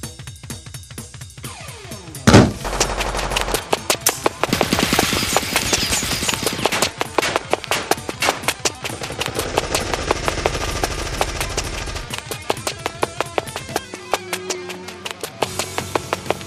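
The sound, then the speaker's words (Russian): Rapid, rhythmic bursts of automatic gunfire crackle steadily for several seconds after a single loud bang, the sharp shots dense, with a low rumbling drone underneath. “со звуком выстрелов автоматического оружия в землю впиваются иглы с указательный палец каждая.”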